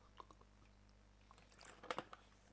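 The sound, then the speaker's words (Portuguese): Someone takes a quiet sip of water: soft wet mouth clicks, then a brief cluster of swallowing sounds near the end, with no talking. “Vou beber um golinho d'água, pessoal”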